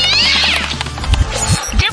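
A cat lets out a loud, drawn-out meow with a rising, wavering pitch, followed by a few shorter cries and some low thumping noises.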